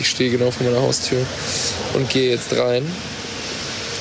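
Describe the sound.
Steady outdoor rain hiss and passing cars fill the background of a street scene while a person speaks, the soft wash continuing evenly after the talking stops.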